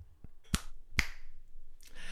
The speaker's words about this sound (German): Und, und jetzt Schnips und nachher, wenn es Schnips. Und wenn es weitergeht, nochmal Schnips. Aber für euch ist es ja. dann nur zwei Schnips hintereinander.